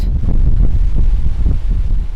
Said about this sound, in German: Eben stand man noch windgeschützt 30 cm neben der Apparatur. Jetzt auf der Plattform pfeift der Wind.